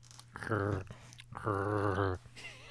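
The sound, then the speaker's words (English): A cat meows twice, a short call followed by a longer, drawn-out one, clear over a steady low hum. “I hear a cat.”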